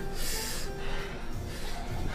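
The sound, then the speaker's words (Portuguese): A person imitates labored breathing with two loud, rasping breaths, one drawn in then another after a short pause, with no talking. “Como é que é a tua respiração? o, o, … faz um algo parecido. Imita o ele”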